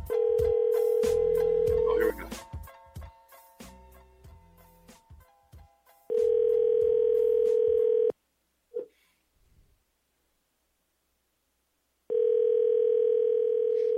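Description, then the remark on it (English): A phone ringback tone from a call placed from a studio sounds three times, each steady buzzing burst lasting about two seconds with long silent gaps between; the call goes unanswered. Some muffled talk and clatter fill the first gap. “We're ringing through.”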